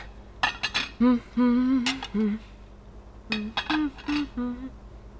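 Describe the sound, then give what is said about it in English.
Dishes and cutlery clink and clatter in short bursts as they are loaded into a washer, mixed with wordless, voice-like tonal sounds, with a brief pause before a second flurry of clinks. “Uh, these should all go in the washer.”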